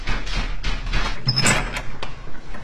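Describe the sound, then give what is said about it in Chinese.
A door in a family home is opened for an arriving housekeeper: a quick metallic latch click and rattle, followed by a brief scraping swing. A low steady hum runs underneath, and no one speaks. “嗯， 我去开门。”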